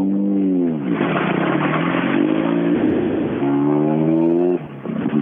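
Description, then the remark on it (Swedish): A Volvo 940 car engine runs loud, its pitch rising and falling as it revs, with a deep, throbbing thrum underneath much like the beat of a helicopter from the TV show M*A*S*H. No one speaks. “Han har ett skumt ljud under det. låter som en sån här riktig Mash-helikopter.”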